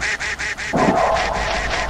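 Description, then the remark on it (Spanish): A cartoonish video game duck quacks in a quick, steady string of repeated calls, fairly loud, with a rougher, noisier game sound joining in partway through. “Pero es que el pato a veces es más rápido que nosotros.”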